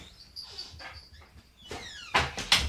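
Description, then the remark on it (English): A male cat, just back from a circle of the block, meows several times in quick succession, thin wavering cries at first, then two louder, sharper meows at the end, with no one talking. “it's the cat, everyone. He's meowing again.”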